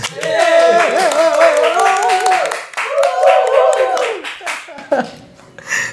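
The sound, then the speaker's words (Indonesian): Several hands clapping in a quick, uneven patter for several seconds to celebrate the launch of the game project Love Convention, mixed with loud voices cheering and laughing over it, the claps thinning out toward the end. “Bantuin dong tepuk tangannya.”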